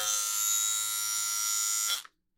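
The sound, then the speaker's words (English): An electric ball trimmer buzzes steadily and loudly for about two seconds, a dense harmonic motor drone, then cuts off abruptly into silence. No voices are heard. “Ball trimmer is out.”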